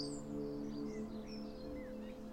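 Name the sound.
birds chirping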